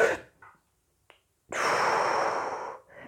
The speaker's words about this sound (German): Also die 478 Atemübung geht wie folgt. Wir atmen auf 4 in den Bauch ein. Dann halten wir für 7 Sekunden und dann atmen wir gleichmäßig wieder auf 8 aus.